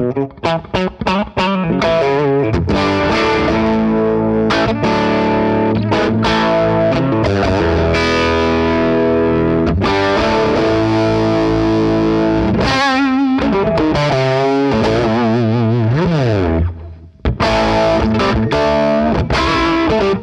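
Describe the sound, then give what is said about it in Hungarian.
An overdriven electric guitar played loud through a Vox amp with every control, tone included, set to five, strumming chords and riffs steadily for about twenty seconds with one brief pause near the end. No one speaks. “Igen, itt, itt egy hangerő van, a, a tonkatot is berakom ötösen, mindent öt, és megnézzük, hogy mit csinál.”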